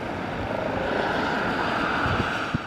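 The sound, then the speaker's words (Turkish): A farmers' protest convoy of about 200 tractors on the ring road of Rome, Italy, rumbles steadily and loudly throughout, a dense, continuous mechanical drone with a few brief low thumps near the end and no voices. “Yaklaşık 200 traktörün katıldığı konvoyda çiftçiler günlerdir sürdürdükleri protesto gösterilerine bir yenisini ekledi.”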